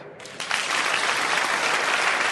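Audience applause swells in within the first half second, then holds as a steady, loud wash of many hands clapping with no voices on top.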